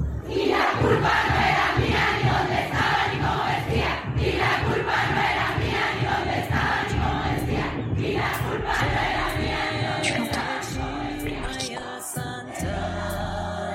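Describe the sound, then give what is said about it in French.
A large crowd of women roars and shouts in protest, a dense, loud wall of voices sustained throughout, with a brief lull before the clamor resumes near the end. “tu l'entends La gronde des femmes”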